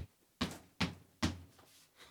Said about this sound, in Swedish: Eh, men vi knackar på och slaggar här och ser om man är hemma.